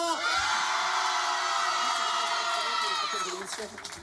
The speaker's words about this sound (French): Les enfants et les adultes, faites un maximum de bruit